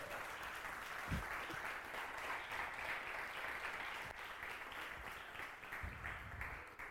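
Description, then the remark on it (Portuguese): Sustained applause from a crowd, a dense, steady wash of many hands clapping at an even loudness for several seconds, with no one talking over it. “A sala de palmas aí!”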